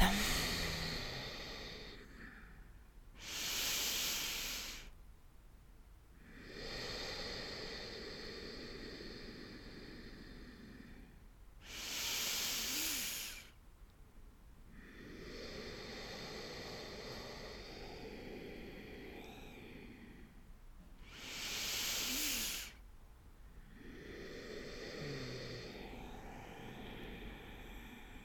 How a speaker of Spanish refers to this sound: y vas a empezar a tomar un ritmo de respiración profundo y pausado, inhalando por tu nariz, exhalando por tu nariz.